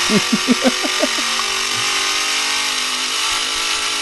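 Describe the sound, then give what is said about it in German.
A simulated car engine sound from an app revs in several quick bursts, then settles into a steady, low idling drone with a bright electronic hiss, fairly loud with no talking. “Wenn man langsamer wird, die Scheibe, dann wird es wieder runter und äh, vor der Ampel oder so macht er dann Standgeräusche. Dann blubbert er so vor sich hin, ja, genau.”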